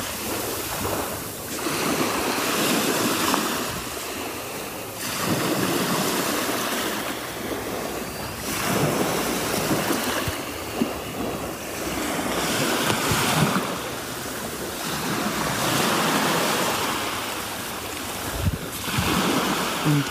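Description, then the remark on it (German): Baltic Sea waves wash steadily against the shore in a broad, hissing rush that swells and eases every few seconds, with a touch of wind buffeting the microphone and no voices; recorded on a mobile phone. “So, und als Entschädigung dafür und auch als Beweis dafür, dass ich auch an der Ostsee an euch sehr gedacht habe, gibt es jetzt erstmal etwas Meeresrauschen für die Ohren.”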